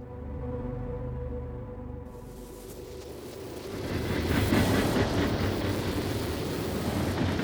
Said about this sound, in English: It's October 9th, 1995, and a passenger train chugs through the Arizona desert.